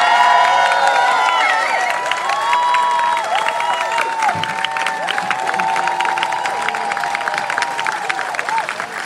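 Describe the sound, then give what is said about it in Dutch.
A large crowd cheers, whistles and applauds loudly and continuously, with a single heavy thud midway through the roar as the entrance doors of a haunted fairground attraction slam shut for the very last time. “En met een harde klap en gejoel en applaus vallen dan voor de allerlaatste keer de toegangsdeuren van het spookschot dicht.”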